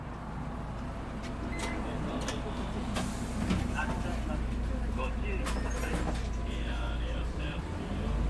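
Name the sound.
city bus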